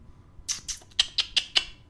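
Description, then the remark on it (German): A cat mewing in a quick run of about six short, high, squeaky calls, each a brief burst with barely a pause between them, heard alone with no talking. “Jetzt mautzt hier gerade der Kader ein bisschen umher.”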